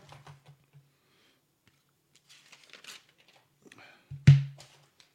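Sheets of paper rustle and shuffle in short, scattered bursts as they are held up to be shown, with soft crinkling and one sharper, louder handling knock near the end.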